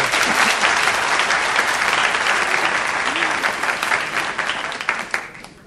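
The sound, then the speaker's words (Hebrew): Sustained applause from an audience for the band's only female member, a dense, steady crackle of many hands clapping that stays loud for several seconds before thinning out at the end. “קודם כל, לכל מחיאות הכפיים תזכרו.”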